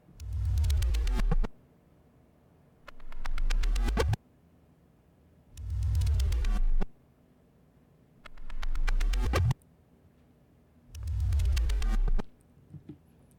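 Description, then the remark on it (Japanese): Five loud, buzzy synthetic swells, made as a sound effect by playing audio in reverse and adding effects, repeat in turn, in two patterns rising from a lower pitch or falling from a higher one. Several build up and then cut off abruptly, with brief quiet gaps between them. “音を逆再生してエフェクトも加えつつ、効果音を作ってみました。”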